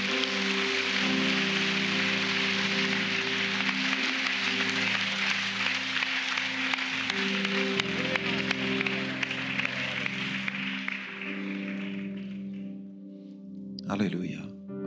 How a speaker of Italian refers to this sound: Facciamogli un applauso meraviglioso.